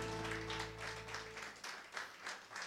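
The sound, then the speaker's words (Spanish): An audience applauds for the Lord in a dense, steady wash of clapping with a loose rhythmic pulse, while a low sustained tone underneath fades out partway through. “aplauso para nuestro Señor, mis hermanos.”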